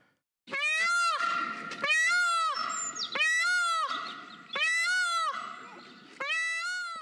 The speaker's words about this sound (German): Was war das? Das war der markerschütternde Schrei eines Pfaus.